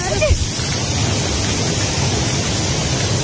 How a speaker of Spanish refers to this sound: ¿No estás escuchando el chaparrazo de agua? Escuchate eso. Parece el río Chachahuala.